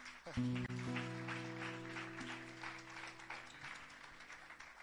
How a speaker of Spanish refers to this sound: Eh, chicos, os podéis sentar si queréis. Vale, gracias. Un aplauso para el Ministerio de Adoración.